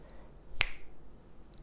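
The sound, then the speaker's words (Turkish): A single sharp finger snap rings out crisply near the middle, brief, with near silence before and after and no talking. “bir parmak şıklatıp o da ne altınla kaplı bir at arabası ortaya çıkmış.”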